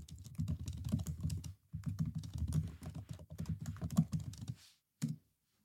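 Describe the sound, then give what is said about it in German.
Rapid, steady ten-finger touch typing on a computer keyboard, a dense stream of quick key clicks with a brief pause midway, then a few final taps and one last isolated keystroke, clear. “Und jetzt guck mal, und jetzt hört sich, so hört sich ein Zehn-Fingersystem an.”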